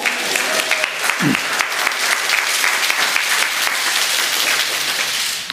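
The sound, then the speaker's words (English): A large audience applauds to celebrate someone placing their faith in Christ, a dense, steady wash of clapping that holds at an even, fairly loud level for several seconds before cutting off abruptly. “Yeah, go ahead and clap on that.”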